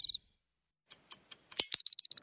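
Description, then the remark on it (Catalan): An alarm clock goes off at 7 in the morning: a few quick high beeps, some clattering ticks, then a run of loud, evenly spaced electronic beeps ringing with no one talking. “7 del matí. Són el despertador.”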